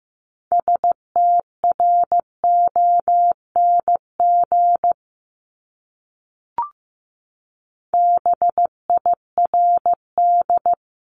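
Morse code at about 15 words per minute sending words from a top 500 words practice set: a steady mid-pitched tone keyed into short dots and longer dashes, two bursts of characters separated by a pause with a single brief click.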